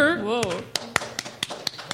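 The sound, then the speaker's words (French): A voice trails off, then a few scattered claps ring out, sharp and irregular, like a handful of people applauding unevenly rather than full applause, as people clap for the edition they think is best. “OK, on va, on va faire chacune des éditions, puis je veux que les gens applaudissent s'ils si disent que c'est la meilleure.”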